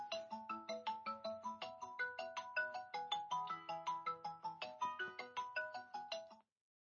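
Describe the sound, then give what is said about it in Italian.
A mobile phone ringtone plays a bright, rapid electronic melody of repeating synthetic notes, steady, for several seconds before cutting off abruptly. No one speaks over it. “Accidenti, scusate perché come al solito quando arrivo di fretta mi dimentico di spegnere”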